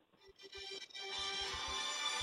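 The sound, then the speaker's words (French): A mobile phone ringtone plays during a live broadcast, from a phone the speaker forgot to switch off, starting with soft, evenly spaced beeping notes before swelling into a loud, sustained electronic melody rich in bright tones that fills the rest of the moment. “J'ai oublié d'éteindre mon téléphone.”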